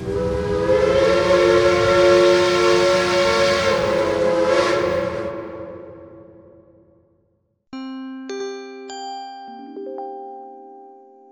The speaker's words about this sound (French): Mesdames, Messieurs, votre attention s'il vous plaît. Le train 1938 va partir pour la destination 2022. Attention à la fermeture automatique des portes, attention au départ.